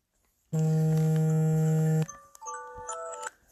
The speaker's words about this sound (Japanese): すいません、今アラーム鳴りました。すいません。